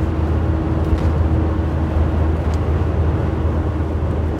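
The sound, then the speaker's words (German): A steady, loud drone with deep low-frequency rumble and a constant hum as a bus drives faster downhill with a slight tailwind on the A81 motorway, heard from inside with no talking. “Ich bin jetzt auf dem Abschnitt, wo ich mit meinem Bus auch mal ein bisschen schneller fahren kann, weil äh, es geht bergab und ich habe äh, ein kleines bisschen Rückenwind.”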